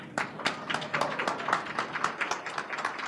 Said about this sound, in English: But uh, let's give a very warm round of applause to